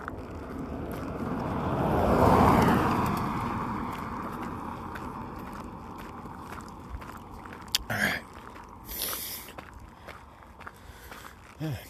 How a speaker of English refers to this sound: Car coming.